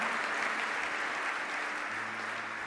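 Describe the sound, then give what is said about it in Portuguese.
A large crowd claps steadily to applaud the Lord, a dense, continuous wash of applause with no clear pauses or spoken voices, sustained at an even level throughout. “Aplauda o Senhor, porque o que estava travado vai romper na tua vida.”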